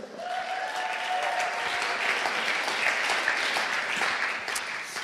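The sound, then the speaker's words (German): An audience at a sermon claps steadily for about five seconds as the next Bible verse is announced, a dense, even patter of many hands with no voices standing out, holding a fairly constant loudness throughout. “Kolosser, der nächste Bibelvers, könnt auch wieder klatschen.”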